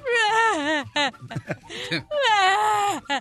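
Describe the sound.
A voice imitates a woman crying, letting out two long, loud, wavering wails separated by short sobbing catches and gasps, with nothing else in the background.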